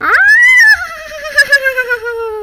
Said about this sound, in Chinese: 他们三人越讨论越觉得这个计划可行，于是就一起学马叫。不一会儿，熟悉的马鸣声响起。